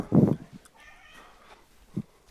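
A kitten lets out a soft, drawn-out meow after a brief louder thump-like burst, followed by a short low sound near the end, all fairly quiet.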